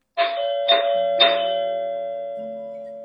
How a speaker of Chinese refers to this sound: 忽然呢，门铃响了。